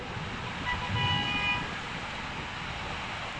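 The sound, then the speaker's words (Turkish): Steady roar of traffic on the flooded E5 highway in Istanbul after heavy rain, with a car horn sounding for about a second near the start, then the constant rumble of vehicles continues alone. “...servis araçları E5'te”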